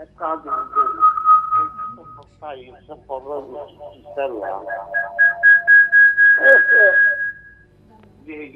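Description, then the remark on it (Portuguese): A sustained, piercing feedback whistle from a caller's radio, turned up too loud during a phone call, rings out in two long tones over muffled, echoing talk, the second whine steady and loud before cutting off. “Baixe só um pouquinho o seu rádio que está dando retorno aqui.”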